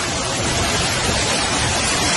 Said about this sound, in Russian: Э, вот потоп Э, в метрополитене просто водопады какие-то туда сейчас должно быть видно. Вот, смотрите, какой поток вниз идет.